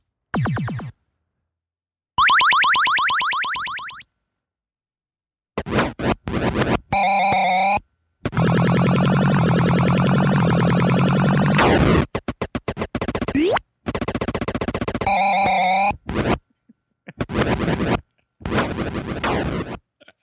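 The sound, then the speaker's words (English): Retro arcade video game sound effects from someone playing a classic arcade game: a rapid series of buzzy electronic bleeps, warbling tones and harsh noisy bursts, loud, separated by short silences, with no talking. “we're gonna play a sound clip from this classic, this venerable classic of uh, Joust”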